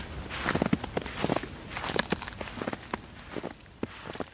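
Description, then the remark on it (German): Slow, heavy footsteps crunch and creak through deep snow, each step a soft compressed squeak, roughly a dozen paces over a faint stiff breeze blowing through icy branches, with no voices. “steife Brise bläst durch vereiste Äste, knarzende Schritte im tiefen Schnee.”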